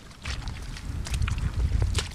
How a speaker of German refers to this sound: So klingt ein intaktes Moor. Weich und ordentlich nass.